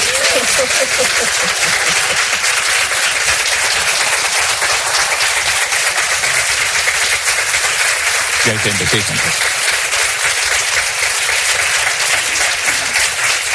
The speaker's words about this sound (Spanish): Eh, ¿Pueden aplaudir para que la gente vea que hay mucha gente allí? A ver.